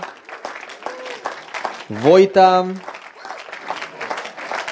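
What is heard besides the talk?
audience applause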